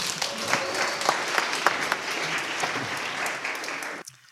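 A crowd applauds steadily, a dense wash of many hands clapping at a strong, even level for about four seconds before cutting off abruptly.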